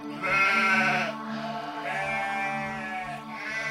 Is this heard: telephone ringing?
no